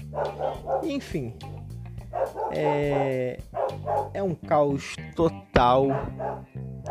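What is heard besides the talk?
dog barking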